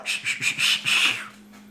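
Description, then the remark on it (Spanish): A person tries to whistle, producing several short, breathy puffs of air with a thin tone breaking through, then trailing off into quiet. “Híjole, yo ni sé chiflar.”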